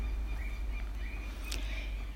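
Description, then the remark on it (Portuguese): Small birds chirp faintly and intermittently in the woods over a steady low rumble of passing cars, with one brief sharper sound partway through. “E vocês vão ouvir barulho de carro passando e também de passarinhos.”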